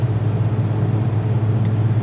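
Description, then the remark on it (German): A steady, loud hum of a car's heater and ventilation fan fills the space, with a low droning rumble and broad airy hiss continuing evenly throughout, no voices present. “Ich hoffe, es funktioniert auch, auch wenn jetzt die Heizung und Lüftung natürlich relativ laut sind.”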